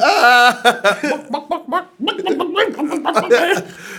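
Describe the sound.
A voice imitates a rabbit making a clucking chicken noise, a loud, rapid run of short choppy vocal bursts with a chuckling, giggly edge, briefly pausing before another bubbling stretch of clucks.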